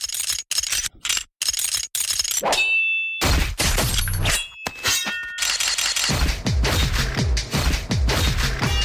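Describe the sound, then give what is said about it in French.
Sword clash sound effects used in the very brutal ending of a song: a rapid run of loud metallic clangs and scrapes, some leaving a high ringing tone, with a short silent gap before the dense, hard-hitting clashing resumes and continues to the end. “D'où la fin de la chanson euh, qui est, très brutale où j'ai utilisé des, des bruits d'épée et des bruits de, du, des de flingue.”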